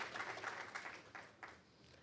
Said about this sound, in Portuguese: Gente, outra salva de palmas para a saída deles. Vamos aplaudir!